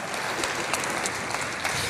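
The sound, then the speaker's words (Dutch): An audience applauding steadily for a man being welcomed to speak, a dense wash of many hands clapping at a fairly even level with a few sharper claps poking through, and no voices over it. “Geef hem een ongelooflijk groot applaus.”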